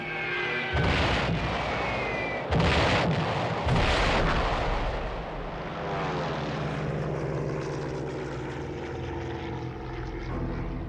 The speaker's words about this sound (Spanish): Los estucas son bombarderos en picado equipados con sirenas. Sus entrenados pilotos resisten la gran presión del descenso y sueltan las bombas en el último momento con una precisión mortal.